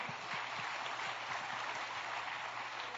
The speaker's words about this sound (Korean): 자, 감사합니다. 우리 들어갈 때 박수 한 번 더 해주십시오.